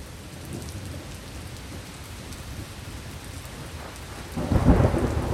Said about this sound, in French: L'orage nous tombe dessus.